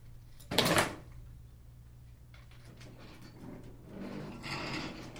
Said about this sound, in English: Let's let's listen to a little bit of music for desks.